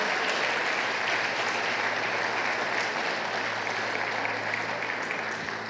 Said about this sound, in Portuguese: Meu sogro tem 60 anos de convertido a Jesus. Tem que aplaudir a Jesus pela vida dele.